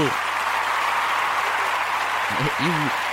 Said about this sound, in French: Attention, je mets des applaudissages, voilà. Bravo.